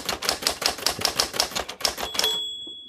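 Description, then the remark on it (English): Rapid typewriter keystrokes clatter in a quick, uneven rhythm for about two seconds, then a bright bell dings and rings out as the typing stops. “Who works on a typewriter?”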